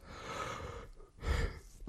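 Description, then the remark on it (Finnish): A breathy yawn: a long drawn-in breath followed by a deeper, airy exhale, with a short extra breath at the end and no speech. “Sori, mä, mä tajun, miksi mä haukottelen koko ajan.”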